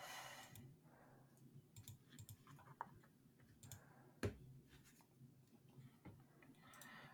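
Scattered, irregular clicks and keyboard taps from a computer as someone clicks around on NHL.com. A few sharper clacks sound over a low hum, with no talking.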